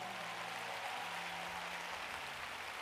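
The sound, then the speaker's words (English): An audience claps their hands for a woman coming forward to the altar, in a dense, steady burst of applause that holds at an even loudness throughout, with a faint low hum beneath and no voices. “Would you clap your hands for this wonderful woman who's coming?”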